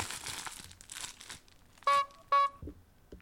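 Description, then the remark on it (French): A paper package tied to a stone is unwrapped with a second and a half of crinkling and rustling, then a clown's horn gives two loud, short, nasal honks in quick succession. “Écoute, je vais t'ouvrir le paquet là.”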